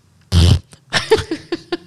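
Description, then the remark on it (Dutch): A fart-sound jingle dedicated to a dog: a loud, low, buzzing fart sound bursts out, then a string of shorter, higher sputtering pops trails off over the next second and a half. “That's her middle name. Billy fart.”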